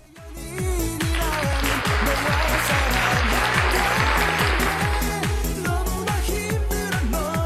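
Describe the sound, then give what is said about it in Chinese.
A burst of applause for the 79 viewers of a live stream swells in quickly and holds steady for several seconds, dense crackling clapping layered over a steady, thumping low beat, then thins out slightly toward the end. “然后现在在直播间的总共有七十九个人，你们都是最棒的，来为你们鼓掌！”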